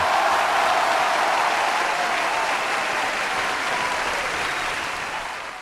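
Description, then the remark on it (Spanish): A recorded ovation sound effect played to thank a viewer for a comment, a burst of crowd applause with dense and steady clapping from many hands that holds at full strength for about five seconds before starting to fade at the end. “Poneme una ovación ahí grabada”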